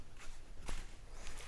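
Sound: footsteps walking indoors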